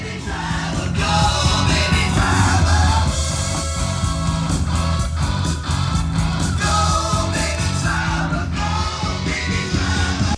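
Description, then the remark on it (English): Loud, dense 1970s rock plays from side 2 of a 1976 vinyl record album, with full band, steady pounding drum hits, and distorted guitars filling the whole stretch without pause. “Drop of the Needle, Side 2, …, 1976. The side may need cleaning.”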